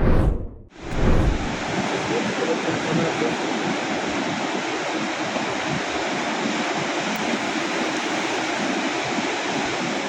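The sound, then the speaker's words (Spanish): Steady, dense roar of Pacific Ocean surf washing in continuously at night, loud, at the beaches of Tijuana, Rosarito and Primotapia in Baja California, February 2024, after a brief cut near the start, with a windy hiss over the whole stretch and no voices. “Desde la zona de playas de Tijuana, Rosarito y Primotapia, diversas personas lograron observar cómo en medio de la noche”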